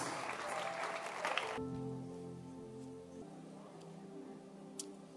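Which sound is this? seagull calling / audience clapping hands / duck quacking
audience clapping hands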